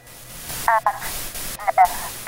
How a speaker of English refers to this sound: She jumped as the whooshing noise coming from the machine was interrupted by static.